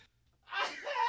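After a brief near-silent pause, a single loud, close sneeze bursts out, a sharp breathy explosion that trails into a voiced, ringing tail.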